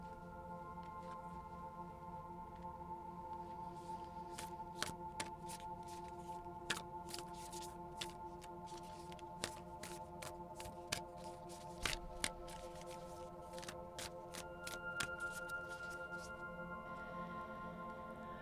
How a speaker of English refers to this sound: Okay, so this card actually dropped to the floor when I was shuffling, and I wasn't going to use it because I thought a few of them dropped.